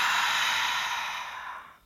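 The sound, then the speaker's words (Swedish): A long, steady exhale after a deep breath taken in through the nose and held at the top, breathy, slowly fading out over about two seconds with no talking. “Håller en stund på toppen. Och andas ut.”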